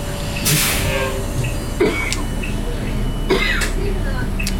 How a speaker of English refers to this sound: This is just a bus show. We're just gonna give you sounds of the bus. Sounds of the bus.